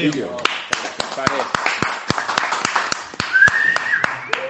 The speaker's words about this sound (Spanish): Ahora, yo creo que lo mejor es que nos tiremos 35 minutos aplaudiendo. ¿Os parece?